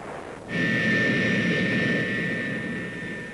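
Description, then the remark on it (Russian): A loud, steady roar from the engines of a bomber carrier aircraft kicks in after a brief quiet moment. A sustained high whine rides over broad rumbling noise and holds constant as the plane climbs with an extremely powerful 50-megaton hydrogen bomb suspended beneath it, during the test of 30 October 1961. “Самолет-носитель с подвешенной к нему особо мощной водородной бомбой набирает высоту Высота 10 500 метров.”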